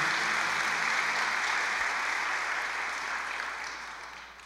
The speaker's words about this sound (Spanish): Un fuerte aplauso al Señor Jesús en esta mañana.